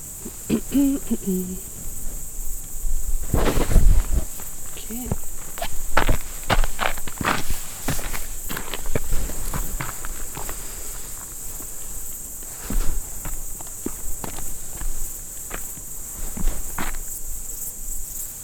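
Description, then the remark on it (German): Footsteps crunch steadily and unevenly down a path at night as a person nears a hut, while crickets chirp continuously in the background and an owl hoots faintly. “Endlich komme ich langsam in die Nähe der Hütte.”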